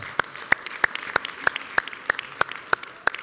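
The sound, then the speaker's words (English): Applause from a church audience welcoming newly introduced leaders of the women's ministry: a soft wash of clapping runs throughout, with one sharp set of claps standing out in a steady, even rhythm of about three per second. No one speaks. “And um, absolutely, let's applaud.”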